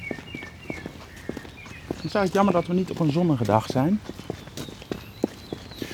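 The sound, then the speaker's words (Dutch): Steady footsteps thud hollowly across the wooden planks of a jetty at an outdoor swimming beach, walking at an even pace, while a person talks briefly over them midway through. “En we gaan over de stijgen lopen.”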